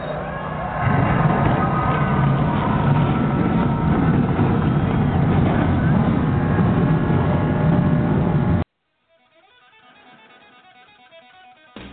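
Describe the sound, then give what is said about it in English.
Race car engines fire up and rev together in a loud, dense, sustained roar for several seconds, then cut off abruptly into a much quieter background. “On behalf of General Tire, where anywhere is possible, drivers, start your engines!”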